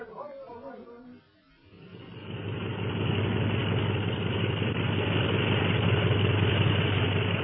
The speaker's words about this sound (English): Those planes will be taxing out for a takeoff at any minute.